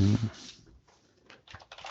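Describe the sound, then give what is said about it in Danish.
A short burst of voice at the start, then a quick run of light computer keyboard clicks tapping out irregularly near the end, as someone checks whether to write something. “Jeg skal lige ind og se, om jeg skal skrive noget her.”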